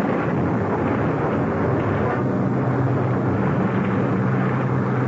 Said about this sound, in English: I had scarcely reached the cover of the portico before the rain came.